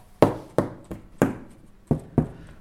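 Six sharp, uneven strikes of hammers on steel plates and cardboard boxes, each a bright metallic clang or duller thud with a brief ringing decay, in an irregular rhythm with no voices.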